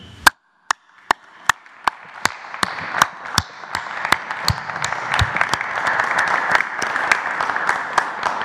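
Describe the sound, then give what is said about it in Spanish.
Audience applause honoring people receiving a recognition for their efforts, along with their families and coaches. It starts with a few sharp, evenly spaced claps, then swells into a steady, dense wash of clapping from many hands, with the rhythmic claps still standing out throughout. “Un aplauso.”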